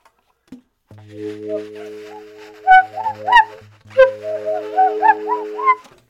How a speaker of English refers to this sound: And so there's this one that's called like I believe it's called the Swainson's Thrush. That's this uh, sounds like this.